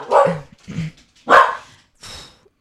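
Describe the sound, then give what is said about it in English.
A person's own dogs bark in four sharp, separate, loud bursts, with short pauses between each bark and no talking. “Those are my dogs.”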